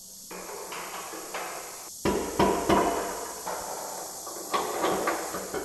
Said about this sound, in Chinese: 在八百平米的世界技能大赛混凝土建筑项目中国集训基地，叮叮当当的敲打声夹杂着蝉鸣，在午后温度近四十度的训练基地里回响。